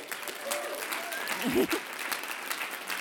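A crowd claps steadily in a dense, continuous patter of applause lasting the whole stretch, with a brief vocal sound or cheer rising from the audience midway through, applauding the church-run TLG Education Centre school.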